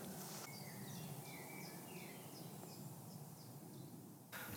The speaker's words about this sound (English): Chiffchaff. Chip chaff.